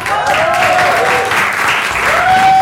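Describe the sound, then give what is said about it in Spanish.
Steady audience applause, a dense wash of many hands clapping at even loudness throughout, with a faint high tone gliding and holding underneath. “Eh, así que un aplauso, por favor, gracias.”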